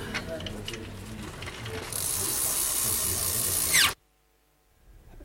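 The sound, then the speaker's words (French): The brake mechanism of a Fausto bicycle ("vélo Faustocopie"), worked by turning and locking it, ratchets with rapid mechanical clicks, then gives a louder, sustained grinding whir that cuts off abruptly into silence as the brake locks. Recorded for Clermont on Saturday 6 July 2002. No one speaks. “Puis il y a, peut-être le, frein qu'on peut faire fonctionner en faisant tourner, en bloquant le frein. Du vélo de Fausto.”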